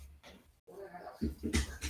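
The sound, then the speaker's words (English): An excited dog named Mac plays with a squeaky toy down the hall, making a quick series of short, sharp yelps and squeaks, moderately loud. “Okay, my dog's going crazy. If you hear that, I'm sorry.”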